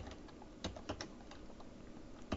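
Scattered clicks of typing on a computer keyboard, a few irregular keystrokes tapped at a slow, uneven pace over a low background hum, with no one talking.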